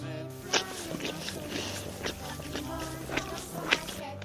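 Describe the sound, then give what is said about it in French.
A dog named Snoopy licks its paw, with irregular wet smacking and lapping sounds spaced a second or so apart over a low, steady background hum. “Voilà, ça c'est le bruit de Snoopy qui se laisse la patte.”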